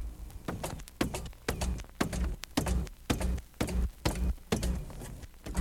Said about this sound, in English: And here's what happens when the machine gains control and mangles your tape.